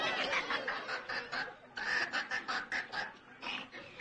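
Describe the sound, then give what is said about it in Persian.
Hens clucking in the village of Lamleng, in quick, choppy bursts, a steady run of short raspy calls with brief gaps between them, fairly loud with no talking. “کرشمه مرغان در لامله”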